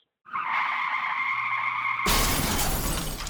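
car skidding and crashing

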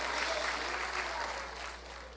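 audience applauding

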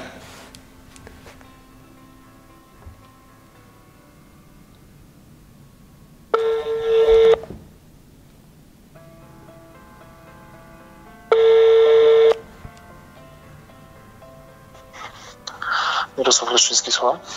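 telephone dialing tones

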